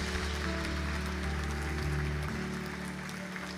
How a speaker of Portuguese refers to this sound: Aplauda o Senhor. Aleluia, aleluia, aleluia.